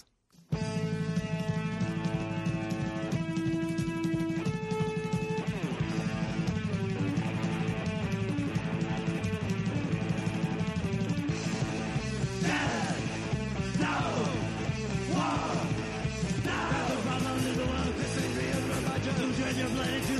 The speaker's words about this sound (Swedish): Och det är ju …. … med sin självbetitlade sjua. Kan smälla på en låt.